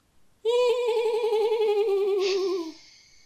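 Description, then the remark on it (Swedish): A person imitates a horse's neigh with one loud, sustained, quavering whinny that wobbles in pitch for a little over two seconds before trailing off. “Hur låter en häst?”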